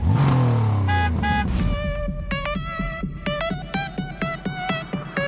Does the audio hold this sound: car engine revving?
yes